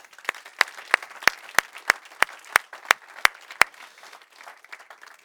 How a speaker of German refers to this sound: Und lass uns gemeinsam diesen Menschen einen kräftigen Applaus senden.